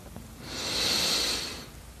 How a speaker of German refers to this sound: Wir nehmen gemeinsam einen tiefen Atemzug und atmen ein.